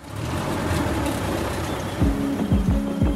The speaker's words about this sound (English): And after a particularly light day, he says, Let's go for a ride. So we hop in his antique truck, a 1964 Dodge Power Wagon classic, and indestructible.